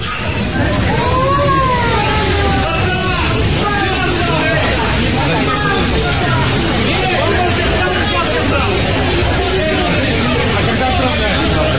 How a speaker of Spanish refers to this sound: Caos, caótico, escenas desesperantes también en la central de trenes de Kiev. La gente se amontona en el espacio limitado de los trenes que quedan saliendo de Ucrania.